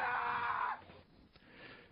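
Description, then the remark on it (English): A shrill, high-pitched cartoon-like elf voice screams the drawn-out word "Santa", loud, for under a second before cutting off to a quiet, murky background. “Uh, we get to hear an elf screaming Santa.”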